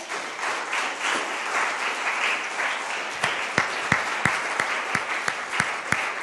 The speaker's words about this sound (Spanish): ¿No le da un aplauso usted a Dios, pero gigante?